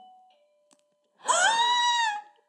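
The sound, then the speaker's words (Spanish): A bell rings once in a bright, sustained electric tone for about a second, loud, with a faint hum before it and no talking. “Me la campana.”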